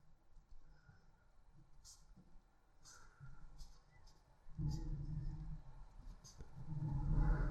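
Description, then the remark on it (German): A neighbour's chainsaw drones in the background, a low steady engine rumble that swells noticeably partway through and stays loud to the end, with faint voices. “Es klingt, als hätte der Nachbar entweder eine Kettensäge oder ein Motorrad angeworfen.”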